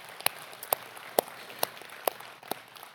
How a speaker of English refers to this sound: The elders have officially affirmed them as pastors. And that is a big, big deal that we're excited about. Yeah, we can get a round of applause for that.